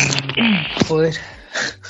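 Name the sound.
sneeze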